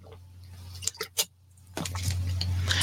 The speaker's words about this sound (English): Let me drink some water.